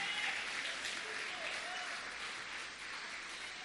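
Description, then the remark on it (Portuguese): An audience applauds Jesus during a worship service in a steady, dense wash of clapping that holds at an even level for a few seconds, with a faint murmur of voices mixed in. “Vamos aplaudi-lo.”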